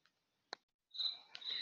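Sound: crickets chirping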